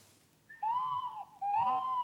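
Two drawn-out, warbling hoot-like calls from small cartoon creatures on a children's TV programme, the second rising slightly, clear with no talking around them.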